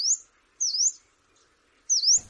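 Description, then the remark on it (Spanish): Three thin, high-pitched calls from a yellow-browed warbler, a small bird about 9 centimetres long, each a sharp upslurred 'tsweest', spaced about a second apart, clear with quiet between them. “Acabamos de escuchar un, el reclamo de un pajarito pequeño que mide 9 centímetros, que se llama mosquitero bilistado.”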